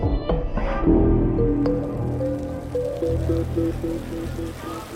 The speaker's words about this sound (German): Die Sonne bringt Wasserfontänen zum Glitzern. Sie springen zu Dutzenden aus dem großen versiegelten Platz vor dem Bezirksrathaus. Sie verebben kurz, sprühen abwechselnd wieder hoch.